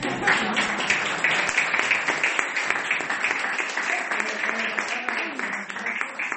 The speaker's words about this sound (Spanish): Oye, por menos de esto me han aplaudido.